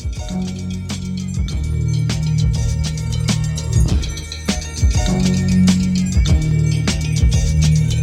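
A hip hop track released in 1994 plays loud, with a deep repeating bassline and steady punchy drum hits at a mid tempo, and no vocals yet.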